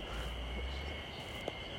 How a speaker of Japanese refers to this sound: これさセミのずっと聞こえてるの音虫の声ってセミだとは思うんですけどいわゆるミンミンゼミではないですよねちょっと虫の種類が分かんないんですけどこの鳴き声って何のセミなんだろうと思いますけど